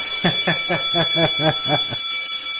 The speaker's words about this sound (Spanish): Así que suena la campana por ahí. Ahí está.